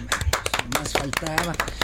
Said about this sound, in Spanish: Pero aquí entrenos un aplauso